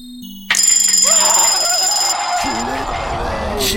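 A loud, shrill alarm clock bell starts abruptly and rings continuously, with a voice talking underneath it toward the end.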